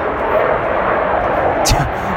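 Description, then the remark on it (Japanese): A loud, steady roar of a Japan Self-Defense Forces aircraft passing overhead in front of Manabi no Mori park fills the scene, broad and continuous, with a person talking underneath it. “自衛隊の飛行機でだいぶ声かき消されてますけどね”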